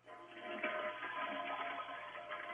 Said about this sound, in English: I'm gonna flush the toilet.